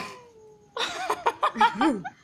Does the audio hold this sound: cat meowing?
yes